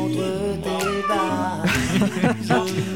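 A cat meows repeatedly, its drawn-out, wavering cries running almost continuously for a few seconds, loud and insistent with a slightly whiny pitch.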